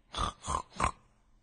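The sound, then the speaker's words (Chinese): Three short, nasal pig grunts in an even rhythm, apparently voiced by a person imitating a pig being let out of a house's door, fairly loud and alone, ending in a brief silence. “他打开了门，放出了山羊，放出了猪。”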